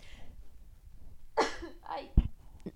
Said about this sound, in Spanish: voy a estornudar.